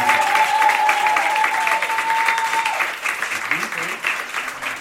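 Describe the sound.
A live show audience claps and cheers loudly and steadily for several seconds for the pianist, a high whistle cutting through early on, before the applause thins slightly and scattered voices come through near the end.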